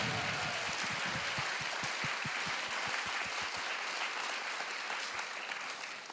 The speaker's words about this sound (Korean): 자, 이렇게 해서 우리, 어, 다, 어, 네 개 기업에서 저희를 또 이렇게 든든하게 밀어주고 계십니다. 여러분, 큰 박수 한번 부탁드리겠습니다.